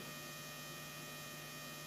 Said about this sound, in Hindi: all good no humming okay know still still humming